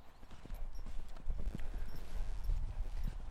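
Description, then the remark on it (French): A racehorse trots, its hooves clip-clopping in a steady, rhythmic pattern of dull thuds, repeating without pause against a low rumbling background, with no voices. “Fais tout égal Tu vois là on retrouve le cheval de course qui pousse beaucoup vers de l'antérieur.”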